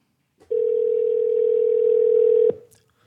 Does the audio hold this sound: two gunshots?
no